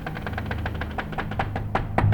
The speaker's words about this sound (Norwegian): Og så våkner jeg at det knirker sånn i taket på soverommet, men det er en leilighet over oss. Men jeg har aldri hørt han naboen har vært i, det området som det knirka i.